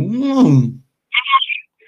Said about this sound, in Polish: Odbieramy telefon oczywiście. Skoro zadzwonił, to dlaczego nie? Halo.